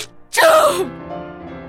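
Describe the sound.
A voice imitates an elephant's huge, exaggerated sneeze: a sudden loud, breathy burst that slides down in pitch, then trails off into a fading groan.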